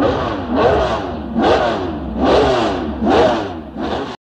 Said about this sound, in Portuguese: Agora que os motores estão ligados, estão todo mundo preparado, pisando no acelerador